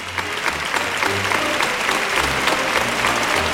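A bullring crowd in Seville gives a sustained ovation for bullfighter Diego Urdiales after the first bull of the afternoon, dense steady applause with many hands clapping at once, loud and even throughout, with faint murmurs of voices underneath.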